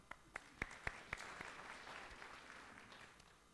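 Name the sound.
audience clapping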